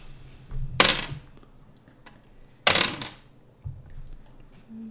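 Dice rolled for initiative clatter onto a table twice, each a sharp rattle that quickly settles, separated by a couple of seconds of quiet background noise.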